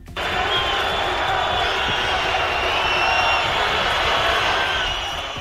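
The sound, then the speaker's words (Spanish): A large crowd boos and jeers Spanish Prime Minister Pedro Sánchez at the National Day parade on 12 October, a loud, sustained roar lasting several seconds, with a few shrill whistles rising above the steady din. “El desfile del día de la fiesta nacional celebrado ayer, 12 de octubre, estuvo marcado, entre otras cosas, por el retraso del presidente del gobierno Pedro Sánchez, que llegó después que los Reyes y recibió abucheos e insultos.”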